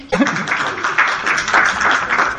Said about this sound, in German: danke für den vielen Applaus